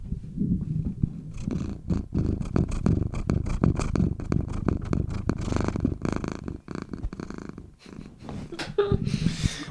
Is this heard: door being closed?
no